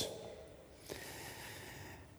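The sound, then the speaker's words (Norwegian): Heavy, breathy air noise from a person breathing, steady and fairly quiet, with one sharper intake of breath near the middle; nobody speaks. “Eh, og jeg puster litt tungt i dag, jeg merker det”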